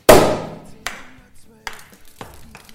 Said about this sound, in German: Wir lassen heute mal die Sektkorken knallen.